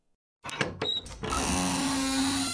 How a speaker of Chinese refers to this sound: 于是，珍珍又按了一次门铃，火鸡先生才打开门。